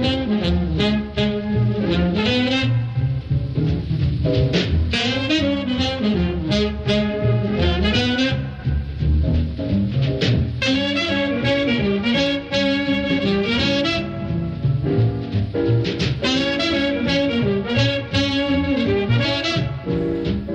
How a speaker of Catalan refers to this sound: I el que ara escoltem és el so del saxo, l'instrument que avui ens acompanyarà fins a les 11 del matí i ho farem a les mans, o als dits, del saxofonista